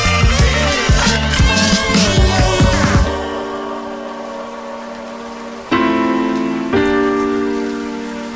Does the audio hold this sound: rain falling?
yes